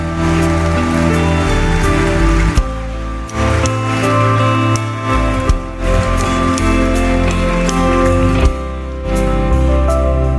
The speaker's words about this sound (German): Können wir alle zusammen aufstehen? Ja, lass uns Jesus doch mal einen Applaus geben, weil er ist wirklich so wunderbar.